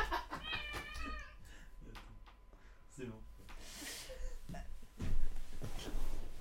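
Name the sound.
cat meowing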